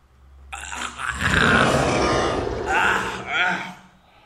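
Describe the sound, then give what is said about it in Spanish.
A person lets out a long, loud, guttural scream imitating a monstrous roar, rough and strained, swelling and wavering for a few seconds with a couple of renewed bursts before trailing off. “lo que hacemos es que pegamos un grito abominable y el otro, listo, ahí se acabó el tema y no pueden volver a ese tema, es lo único, pero se grita de una manera característica que es como...”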